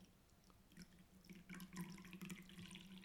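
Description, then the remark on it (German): Green tea splashes steadily into a cup, a soft trickle of liquid that grows slightly fuller as the pour continues, with no voices. “dann höre ich nur, wie der Tee gerade hier in meine Tasse reinplätschert.”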